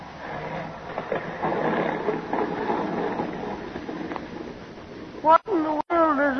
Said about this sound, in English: Meanwhile, the pilot is winging his way. Suddenly, his engine begins to miss. In a moment, he knows he must make a forced landing.